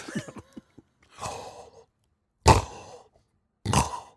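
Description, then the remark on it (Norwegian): Three or four rough, rasping, fairly loud snores in a slow rhythm about a second apart, with nothing else in between. “Jeg kan ikke lide hva det Snorking.”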